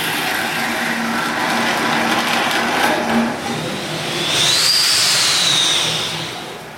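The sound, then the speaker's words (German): A loud, steady rush of steam blowing off from a brewery's steam boiler, pressure being released to desludge it: a broad roaring hiss that holds for several seconds and briefly picks up a high whistling edge partway through. “muss immer ordentlicher Druck abgelassen werden, damit das Ganze auch entschlammt.”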